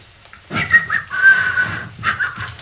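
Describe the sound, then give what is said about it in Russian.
Someone whistles a short, flute-like melody, a long sustained phrase followed by a briefer one after a tiny pause, with no talking. “Флейта. Можно играть на флейте.”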